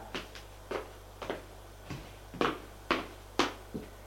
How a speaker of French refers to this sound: Frappe à la porte.